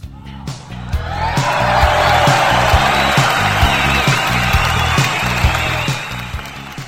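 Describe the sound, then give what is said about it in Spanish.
An audience applauds steadily for several seconds, a dense, continuous clatter of clapping rising quickly and holding at an even level, with a low, pulsing musical beat running underneath. “¡Aplausos, aplausos!”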